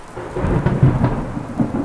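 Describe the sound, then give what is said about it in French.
A big storm during a ten-day boat crossing to Martinique roars, deep rolling thunder rumbling continuously over a dense hiss of heavy rain, loud and unbroken with no voices. “Dix jours de traversée, une grosse tempête.”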